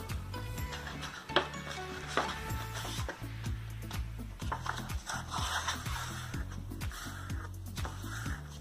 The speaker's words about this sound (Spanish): Cogemos la cartulina y la vamos a doblar por la mitad, que quede bien centradita.